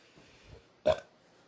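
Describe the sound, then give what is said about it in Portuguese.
A person sitting on a sofa lets out a single short burp abruptly after a moment of near silence, loud and throaty, then fading quickly into quiet. “Pronto, aí arrotei também, foda-se.”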